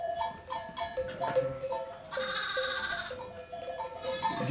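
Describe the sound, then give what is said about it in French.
Several ewes bleat repeatedly in quick succession, their wavering calls overlapping, with a bell-like tinkling in the background and no voices. “Curieusement, j'ai jamais réussi à baptiser mes brebis ou pas, pas, de façon euh, assidue.”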